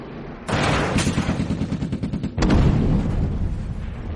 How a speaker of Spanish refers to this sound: Los cazas alemanes sobrepasan la protección de los Spitfire de la octava y disparan balas a la formación de los bombarderos. Tibet y los Fortress llevan a cabo maniobras evasivas para escapar del enemigo.